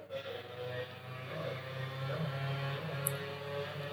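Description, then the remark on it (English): A loud motorcycle engine drones steadily in the background throughout, its low rumble and buzzing harmonics filling the whole stretch without a clear approach or fade, and no one speaks over it. “I'll assume everyone can hear the loud motorcycle in the background.”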